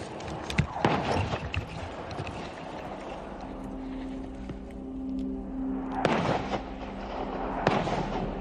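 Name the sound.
artillery cannon fire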